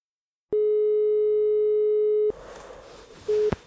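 A telephone ringing tone as a call is placed to a producer and editor: one long, steady electronic beep of nearly two seconds, then a hiss of line noise and the start of a second ring cut short near the end.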